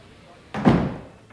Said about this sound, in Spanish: Y acabamos de entrar por la puerta de carga del teatro. Nos ha abierto este amable señor.